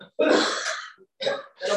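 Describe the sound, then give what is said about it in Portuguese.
A harsh cough: one long raspy burst followed by two shorter, throaty coughs in quick succession, with no talking around them. “Tossi.”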